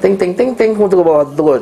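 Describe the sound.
A voice mimics a ringing phone with a quick run of five sung, bell-like syllables, loud, then slides into a few spoken words.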